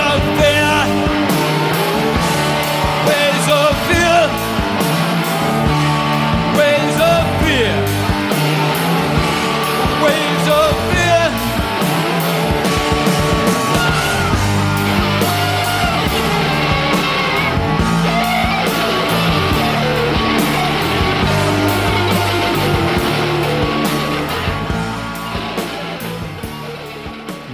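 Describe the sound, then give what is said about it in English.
A loud, driving song plays continuously with a crowd yelling and singing along, the dense wall of music and voices staying steady before easing slightly at the very end. “you know, like people people yelling and singing along with it, but it's like a very uh, you know, nervous song.”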